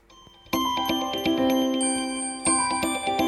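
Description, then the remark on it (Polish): A phone's default alarm tone plays loudly, a bright, bell-like melody of repeated chiming notes that starts after a brief quiet moment and rings on steadily with no voices. “No i alarm. Który brzmi domyślnie tak.”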